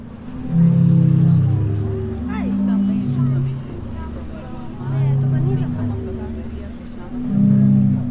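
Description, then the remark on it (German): Deep, warm organ-like tones from a sea organ in Zadar on the Croatian Adriatic coast swell and fade in slow overlapping chords as waves push air through pipes, with faint background chatter of tourists and water sounds. “Seltsame, warme, tiefe Töne sind da zu hören.”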